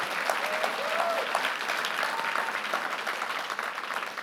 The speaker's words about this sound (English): Can somebody wow. give Abigail an applause that she can hear in heaven?